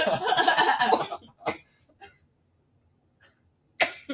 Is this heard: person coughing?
yes